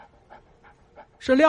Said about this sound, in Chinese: 这时候，他听到了一声狗叫，然后一个滑溜溜的舌头在舔他的脸。